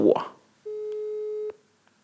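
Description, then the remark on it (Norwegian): A single steady telephone call tone through a speakerphone, a flat beep lasting nearly a second, preceded by a brief burst of someone's voice and followed by quiet. “Da ringer jeg. Tapper høyttaler der.”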